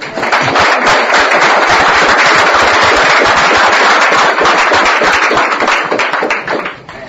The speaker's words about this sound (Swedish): Vi ger oss en eh, varm applåd till er.